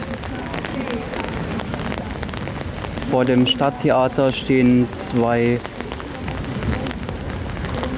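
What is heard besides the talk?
rain falling on surfaces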